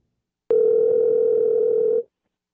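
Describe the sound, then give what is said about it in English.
A telephone dial tone of an outgoing call to a doctor sounds once as a steady, unbroken hum for about a second and a half. It starts abruptly, holds at an even loudness with nothing else around it, then cuts off. “So here's what happened when we gave him a call.”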